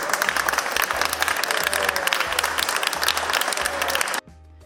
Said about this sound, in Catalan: En eixir al carrer, un grup de simpatitzants li han donat un bany d'aplaudiments.